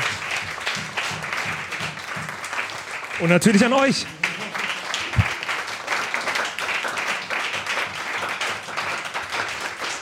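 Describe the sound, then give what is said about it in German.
Sustained audience applause at a live stage show fills the whole stretch, a dense steady patter of many hands clapping, with a man's voice briefly speaking over it partway through. “Auch für euch nochmal einen großen Applaus.”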